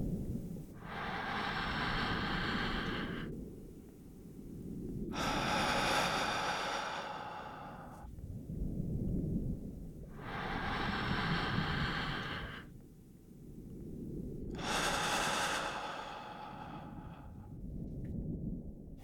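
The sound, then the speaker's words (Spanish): Slow, deep relaxation breathing: about four cycles of a soft inhale through the nose followed by a long, airy, breathy exhale through the mouth, steady and unhurried, with no talking. “Inhalando por tu nariz. Exhalando por la boca. Repitiendo dos veces más.”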